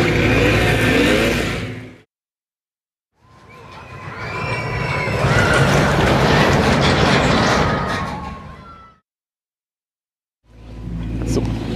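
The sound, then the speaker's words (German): Loud noise heard while passing a construction site: a heavy mechanical roar with whining, grinding tones, heard in three bursts separated by brief silences, with no one talking. “Dann einmal an einer Baustelle vorbei, das wird jetzt auch interessant und laut.”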